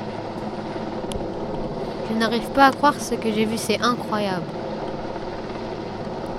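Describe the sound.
Steady outdoor street ambience with a continuous low traffic rumble and hiss; partway through, a person speaks briefly over the background noise.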